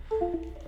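A brief, quiet electronic chime of a couple of tones stepping downward, a computer signaling that a device has disconnected from its cable after being switched to Bluetooth mode, with no talking.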